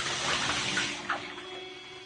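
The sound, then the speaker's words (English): Water sloshes and splashes in a bathtub, a continuous wash of noise with a brief sharper splash partway through. No voices are heard. “Oh, no, not in the water,”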